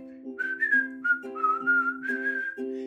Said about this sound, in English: Just whistle while you work